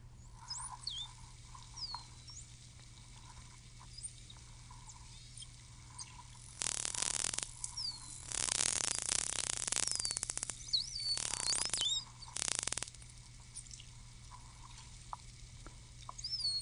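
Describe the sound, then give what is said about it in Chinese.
Underwater recording of white dolphins: thin, high whistles sweep and curl up and down, broken by several loud bursts of rapid echolocation clicking, used to find fish and prey, that buzz like crackling static, over a steady low hum. “听完石首鱼，搞不好你就会听到另外一种族群在唱歌了，那个就叫做你最早的研究白海豚的唱歌。”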